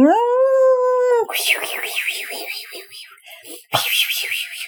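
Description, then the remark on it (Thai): A voice imitates the whoosh of a giant bird diving at high speed through the air with its wings folded: a steady, howl-like tone, then a breathy, wavering hiss that breaks briefly and surges again, fairly loud. “นี่คือเสียงแหวกอากาศ”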